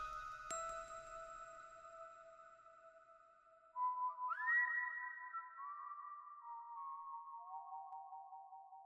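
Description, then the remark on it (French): A sharp click, then steady high tones hold before a louder whistle slides upward and steps down through several sustained, eerie notes, heard in a street in thick fog. No voices; fairly quiet. “En entendant ce sifflement, Cassandre s'arrêta net et regarda au loin devant elle.”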